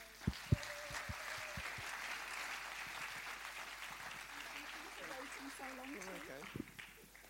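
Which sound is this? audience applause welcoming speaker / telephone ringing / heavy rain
audience applause welcoming speaker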